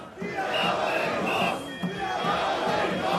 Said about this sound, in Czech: Tady ty planý hesla opravdu, který tady řvou nějaký různý šamany s těma bubínkama, je prostě opravdu věc, která prostě proti nám ty lidi spíš budí.